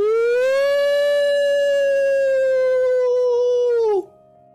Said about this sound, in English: A random howl happens throughout the woods.